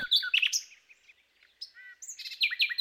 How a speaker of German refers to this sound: Nachtigallen haben ja bis zu über 120 verschiedene Strophen